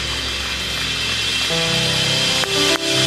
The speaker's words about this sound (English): Let's put our hands together for all of those. Come on.